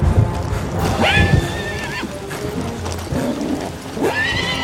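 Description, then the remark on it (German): A horse named Destrier, uncontrollable under its rider as the wind rises to a storm, lets out two shrill, wavering whinnies, one early and one near the end, over a steady thud of hooves and restless low rumbling, with no voices. “Destroyer war nicht mehr zu bändigen und Caspian hatte alle Mühe, sich im Sattel zu halten.”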